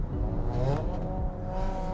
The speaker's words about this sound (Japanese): なんでねすごいなんか前の車がなんかすごいねもうブイブイしてて ああいうのも結構やっぱコンプレックスの裏返しっぽいっすよね